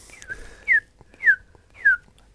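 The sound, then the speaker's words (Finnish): An osprey's whistling call: three clear, descending high whistles repeated at roughly even intervals, loud against a quiet outdoor background. “Tämä on kalasääksi.”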